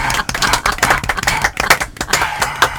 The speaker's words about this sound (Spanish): cuánto público aplaudiendo que hay.